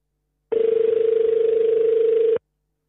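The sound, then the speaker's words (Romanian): A call to the Bucharest Public Health Directorate (DSP) in Romania rings on the line with no one answering: one long, steady mid-pitched ringback tone with a faint warble, lasting about two seconds before cutting off, with no voices. “Dacă sună cineva la un DSP, nu răspunde nimeni.”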